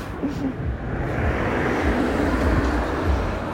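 A car rolls past, its steady broad engine and tire roar filling the whole moment and swelling slightly toward the end, with no one talking over it.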